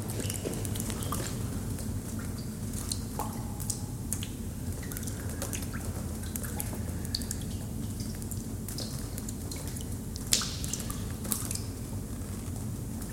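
Water drips through a leaking roof after heavy rain, scattered irregular taps and small splashes landing at uneven intervals over a steady low hum, with no talking.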